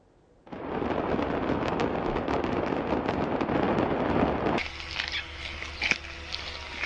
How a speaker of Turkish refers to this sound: Tonlarca patlayıcı neredeyse yok olan bir fabrika. Sakarya Hendek'teki havai fişek fabrikasındaki patlamanın ardından iki kişinin daha cansız bedenine ulaşıldı.